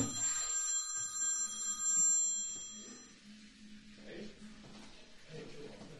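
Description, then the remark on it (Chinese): A telephone rings with a bright, high-pitched electronic ringtone for about three seconds, then stops, while people talk quietly underneath and continue afterward. “老板， 哎， 接个电话好吗？”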